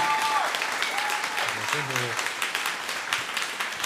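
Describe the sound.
Steady, dense applause from a crowd fills the whole stretch, a bright wash of many hands clapping, with a few brief voiced tones or calls rising over it early on.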